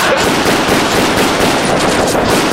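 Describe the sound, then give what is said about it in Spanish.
Loud, rapid gunfire crackles nonstop, a dense burst of shots like automatic weapons fire, as police shoot at someone coming down by parachute, with no voices. “Están disparando la policía al que está cayendo en paracaídas, ¿eh?”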